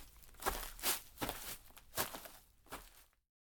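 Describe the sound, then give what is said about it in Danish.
Footsteps crunch over the pea-gravel parking lot of a rowing club in a steady walking rhythm, about six gritty steps, then the sound cuts off abruptly. “gik over på parkeringspladsen og samlede 10 små sten, inden han og Emil fortsatte op ad volden”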